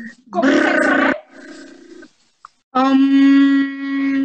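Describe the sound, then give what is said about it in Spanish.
A voice makes a loud, rough, growling vocal burst, then a softer low drone, and after a short pause holds a steady, sustained hum at one pitch, demonstrating humming, making vibrations with the mouth. No words are spoken. “Consiste en emitir vibraciones con la boca sobre los genitales de tu pareja.”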